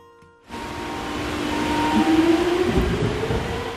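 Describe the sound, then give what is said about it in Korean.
A subway train rumbles along steadily after a brief quiet start, its broad roar building with rising metallic squeals and hums; no voices, just continuous interior rail noise heard while riding. “그렇게 우린 추억 여행을 하기로 했고 지하철을 탔습니다.”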